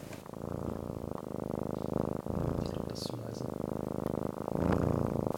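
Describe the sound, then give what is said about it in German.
A cat purrs steadily, a continuous low rumbling drone that pulses in a regular rhythm, with faint breathy murmurs over it. “Gott, ich liebe diese Katze so sehr.”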